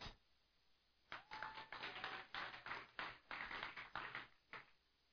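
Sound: audience clapping hands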